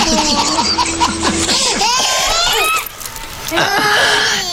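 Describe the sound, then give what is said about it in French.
A baby laughs in bright, repeated bursts of giggles and squeals, loud, with a short pause before another round of excited laughter. “Écoutons ce bébé, n'est-ce pas beau”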